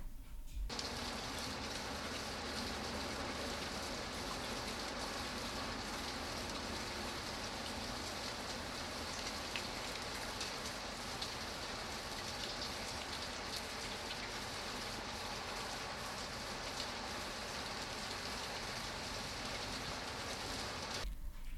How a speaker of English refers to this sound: Der Regen the rain, der Regen. Super.